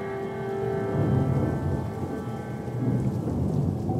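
A thunderstorm: steady rain hisses throughout while deep thunder rumbles and rolls underneath, swelling louder around the middle and again near the end. No voices are heard.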